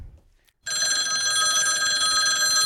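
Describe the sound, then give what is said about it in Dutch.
A telephone bell rings loudly and continuously, a bright metallic trill starting abruptly after a brief silence and sustaining to the end, steady with no talking. “Daar eh, gaat... De co-telefoon.”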